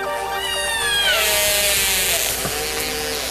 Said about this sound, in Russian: Киты используют множество сигналов для общения друг с другом, а также навигации и ориентации в пространстве. Все разговаривают по-разному. Например, касатки звучат так.